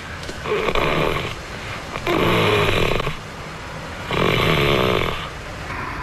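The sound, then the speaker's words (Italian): A voice imitates the snoring-like rattle someone makes when falling asleep on her back: three rattling, grunting breaths at a steady pace, each a rough, throaty drone lasting about a second, fairly loud with no talking. “Guarda che il problema e soprattutto come ti addormenti, perché se ti addormenti supina ti viene come una specie di rantolio, che non è proprio un russare, però sta tra il rantolo e il grugnito.”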